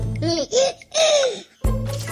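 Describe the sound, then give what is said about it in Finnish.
A baby babbles and laughs in short, high, sing-song bursts, with a brief pause before another squeal of delight. “Kuten kuuluu, niin tässä on minun vauvani”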